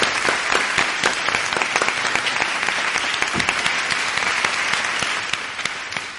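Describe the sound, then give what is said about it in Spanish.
Sustained live applause from the audience of a broadcast programme, a dense steady patter of many hands clapping at an even loudness for about six seconds, with no voices standing out. “También los aplausos en directo.”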